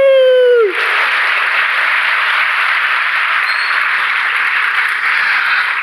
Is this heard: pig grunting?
no